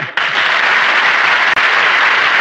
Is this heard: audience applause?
yes